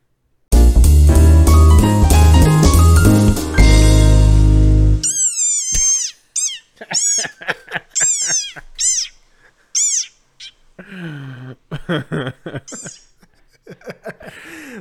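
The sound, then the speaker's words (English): A loud, dense musical burst opens, then an upset desert rain frog gives its angriest distress call: a run of shrill, high-pitched squeaks in quick, uneven bursts, fairly loud. “So here's the sound of a desert rain frog when it is upset. This is the angriest sound it can muster.”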